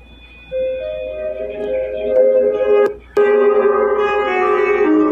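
A rap song plays loudly and up close, with sustained melodic synth notes over a beat; the music cuts out briefly with a sharp hit midway, then returns fuller.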